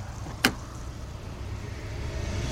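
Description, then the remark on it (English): Low, steady rumble inside a nice car with one sharp click near the start, like a door latch or window switch, then a quiet hum and no talking. “This is like a nice car.”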